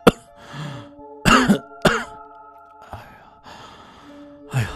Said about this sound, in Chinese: 除了这对情侣以外，还有一位年迈的老人，静静的坐在售票员位置的旁边。老太太双手扶着栏杆，时不时的咳嗽着两嗓子。